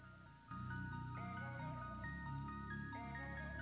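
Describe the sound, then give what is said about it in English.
A short burst of melodic music kicks in after a brief quiet moment and plays steadily, with sustained tones shifting in pitch over a full, even backing and no voices. “By the way, that's my song.”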